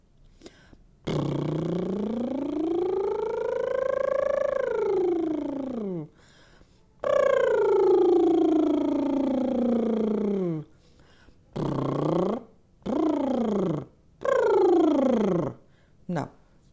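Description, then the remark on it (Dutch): A voice does lip trills, a buzzing flutter of the lips that glides up and down in pitch: two long sweeping trills, then three shorter swooping ones and a brief final burst. “Misschien dat mensen opzij gaan omdat ze denken dat er een scooter aankomt.”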